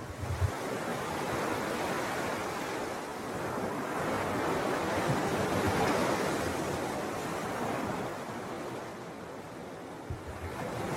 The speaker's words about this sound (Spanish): Escuchas el oleaje.